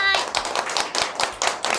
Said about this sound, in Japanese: 拍手でお迎えください